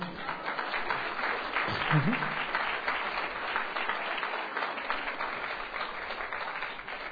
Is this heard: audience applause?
yes